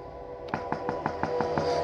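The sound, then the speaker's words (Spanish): A quick series of about seven firm knocks, a repeated knocking on a wooden bedroom door in a house, evenly spaced, with a faint steady hum underneath and no voices. “Se acercó a la puerta de la recámara y volvió a tocar.”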